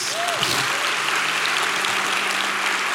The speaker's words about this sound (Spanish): Ese es el Cristo, ese es el mensaje de la Navidad. Denle un fuerte aplauso a Jesús.